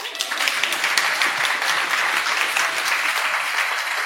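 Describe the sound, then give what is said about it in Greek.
Sustained applause from an audience, a dense wash of many hands clapping at steady volume throughout, with no voices standing out. “Εδώ στον χειροκρότημα εδώ πέρα.”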